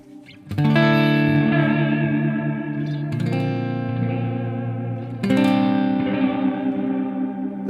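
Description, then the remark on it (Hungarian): Distorted electric guitar with a wavering vibrato effect, three sustained chords struck in turn, each ringing loudly with rich, buzzing overtones and a slight pitch wobble, no voices. “Igen, ez a vibrátó.”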